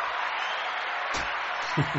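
A steady round of applause from a group, dense overlapping clapping at moderate volume, with a brief voice surfacing near the end.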